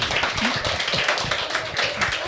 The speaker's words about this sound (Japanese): でも、あの、面白かった方を強く拍手してあげてください。はい。じゃあ、先行のお二郎が面白いと思った方、拍手お願いします。高校の常松さんが面白いと思った方、拍手お願いします。